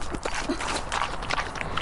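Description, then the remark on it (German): Pigs smack and chew noisily while being fed apple pieces, a run of wet, irregular clicking and crunching sounds with no talking. “Also ich äh, gebe gerade den Schweinen Apfelstücke, weil ja, die mögen das gerne, wenn man denen irgendwie Äpfel oder auch Möhren gibt und die schmatzen, die schmatzen immer sehr dolle.”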